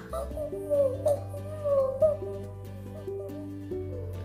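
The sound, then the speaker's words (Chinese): An owl stone carving placed on a table hoots twice, a wavering, mid-pitched cry rising over a steady low drone and soft stepping musical notes, with no talking. “此时，放在整间半锅桌上的猫头鹰石雕再次叫了起来，仿佛是回答了我的问题而大叫。”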